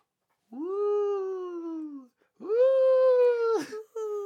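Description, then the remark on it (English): A man crouched outside the windows of people sleeping inside, by a terrace, imitates eerie ghostly wailing to scare them: two long, steady, moaning tones that swell and fade, followed by a shorter third wail, loud with no other sounds. “Did you fucking hear those fucking ghost noises?"”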